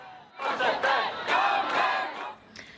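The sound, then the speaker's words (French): A large crowd of Norwegians gathered in the street in solidarity chants in unison, many voices rising together in loud rhythmic bursts for about two seconds before the chant breaks off into scattered noise. “Malgré les recommandations, de nombreux Norvégiens sont descendus dans la rue en signe de solidarité”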